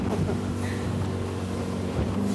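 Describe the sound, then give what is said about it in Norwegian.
A 150-horsepower motorboat engine, run at 80 horsepower, drones steadily at speed, a loud, continuous hum with rushing water and wind noise, no voices. “Liker du å kjøre sånn båt?”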